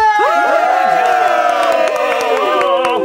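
A crowd cheers and screams loudly in a sustained burst, high-pitched shrieks and whoops layered over a dense roar of many voices, holding steady for about three seconds.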